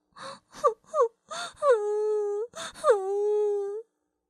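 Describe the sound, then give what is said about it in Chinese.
Someone sobs and cries: a few short, catching breaths, then two long, loud wailing moans that start high and slide down in pitch. “就在这时，听见有人在呜呜的哭”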